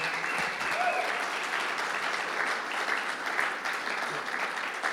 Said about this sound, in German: Lass uns einfach nochmal einen dicken Applaus geben.